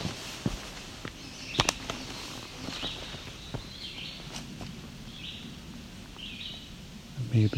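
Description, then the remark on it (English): A chestnut-sided warbler sings faintly, its short high phrases repeating a few times over the crunch of footsteps and rustling. “chestnut side warbler singing again. There we go. a chestnut side warbler again. It's back to singing.”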